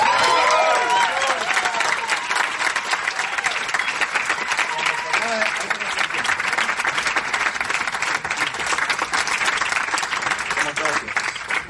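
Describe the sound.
Loud, sustained applause from a large audience welcoming a speaker who will talk about purpose, dense clapping for the whole stretch, with a few voices briefly audible at the start.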